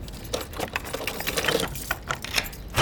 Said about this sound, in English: Oh, I hear a door. Are you gonna carry me across the threshold?